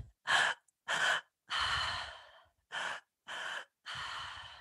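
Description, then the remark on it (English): Rhythmic, forceful breath work through the mouth: two quick sharp inhales, the first into the low belly and the second into the high chest, then a long drawn-out relaxed exhale through the mouth, with the pattern repeating. No talking. “Um, for me, it's it's a particular active breathing pattern through the mouth, um, and it sounds like this.”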